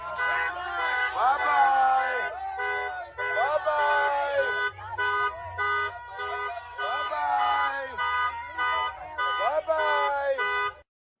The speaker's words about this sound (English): Well, here is uh, some of the protesters. Take a listen as they were blocking one of the buses of migrants last night. Take a listen to this one chanting, bye bye. Bye bye.